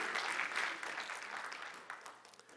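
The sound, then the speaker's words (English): A crowd at a sermon claps for a pastor who brought food, in a dense, steady burst of applause that gradually thins and fades over a couple of seconds, with scattered individual claps trailing off at the end. “Everyone, give him a round of applause.”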